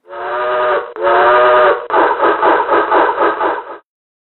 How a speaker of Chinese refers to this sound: 两辆列车同时鸣起汽笛，擦身而过。啊，天上竟然还有其他的蒸汽机车呀！